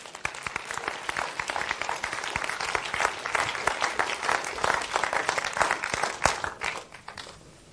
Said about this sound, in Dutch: Geef Jezus een geweldig applaus.